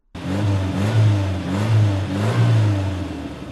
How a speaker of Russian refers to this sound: Его мощные турбины извергали пламя. Гонщик подъехал ближе к костру, поставил машину на ручной тормоз и нажал на педаль, что есть силы.